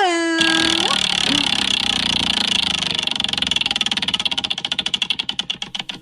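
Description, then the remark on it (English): A spinning wheel rattles loudly, its rapid clicking ticks gradually slowing and spreading apart over several seconds as it winds down; a short vocal sound is heard right at the start. “you got the wheel ready? Got the wheel ready.”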